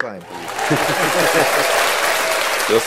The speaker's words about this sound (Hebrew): אה, כפיים לצ'אבי.